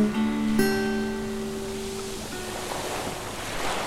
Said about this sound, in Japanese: 波の音と白い砂と青い空の下で